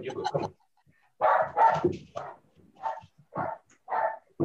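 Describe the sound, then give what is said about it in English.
A dog barks and whines in a series of short bursts, several yelps with pauses between, sounding insistent and distressed, after shutting a door on itself and being unable to open it. “he, he shut the door himself and then it's crying for not being able to open it.”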